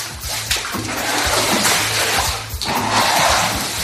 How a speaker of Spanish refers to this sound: La imagen de la jornada es la de vecinos limpiando las casas, achicando agua.